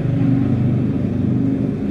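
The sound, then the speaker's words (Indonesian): A motorcycle engine rumbles loudly at a warung (roadside food stall) in Bintaro Sector 7, a steady low, throaty drone that holds for about two seconds before easing slightly at the end, with no voices. “berisik nih motor.”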